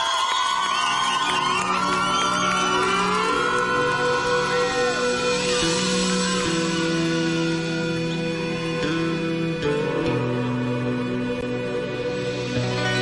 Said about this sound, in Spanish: Un aplauso